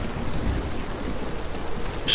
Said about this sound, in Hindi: और बारिश में ऐसे आगे बढ़ते रहना तो संभव नहीं है तो मैं एक बरगद के पेड़ के नीचे खड़ा हो गया बस ऐसे ही मुझे इस तेज बारिश और तूफान से खुद को बचाना होगा आधा घंटा बीत गया लेकिन बारिश थमने का नाम ही नहीं ले रही थी